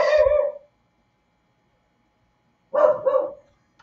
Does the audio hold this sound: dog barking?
yes